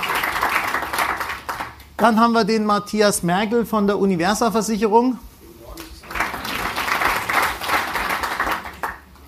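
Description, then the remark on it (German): Audience applause at a panel discussion, a broad steady wash of many hands clapping as a panelist from the Stuttgarter Versicherung is introduced, rises before and after a man's spoken introduction, continuing at moderate loudness beneath and around his voice. “Genau, Applaus, schaut nichts.”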